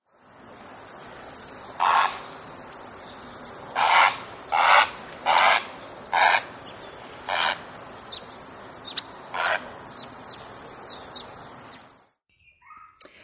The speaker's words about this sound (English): but it's the great egret. And that takes us to the riparian area of the Southwest. You can find this dapper water bird right now. Take a moment. I really like the way this guy looks um, and listen to their call.